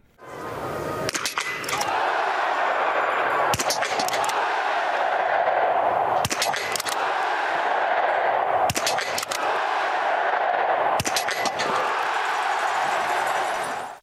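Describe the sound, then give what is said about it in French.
The jingle of the show Biathlon en live, built from clusters of sharp, gunshot-like cracks landing about every two and a half seconds over a steady, loud, rushing noise bed, with no one speaking. “Jingle.”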